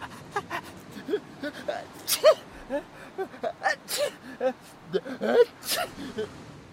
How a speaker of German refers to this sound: Ja, so ist das eben mit diesen Niesquallen. Los geht's mit einer ewigen Nieserei.